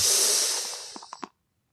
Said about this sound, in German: Dann schütten wir. Schenke er ein, genau. Aber ins Glas, nicht in mich. Ja. In das gute 04-Glas, das von Toll, das finde ich auch gut.